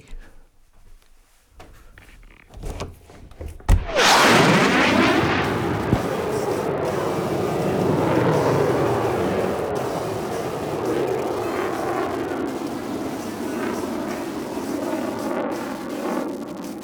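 After a few quiet seconds, a loud airplane roar suddenly swells up and stays, a broad, rushing engine noise that rumbles steadily as the aircraft flies by outside, heard from indoors with only a glass window pane in between, with no talking.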